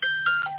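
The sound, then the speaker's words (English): A phone gives off a quick run of electronic beeps, steady tones that shift pitch a few times in under a second, fairly loud, with no one speaking. “um, uh, sorry about my phone.”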